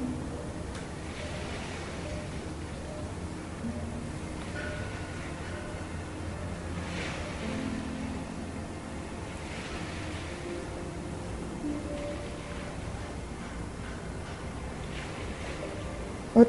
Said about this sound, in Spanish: Intenta que poniendo tu atención en tu respiración y en el sonido de las olas, tu mente se aquiete.